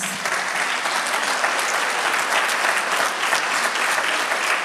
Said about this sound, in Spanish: Los felicito. Vamos a darle un aplauso a estos hermanos.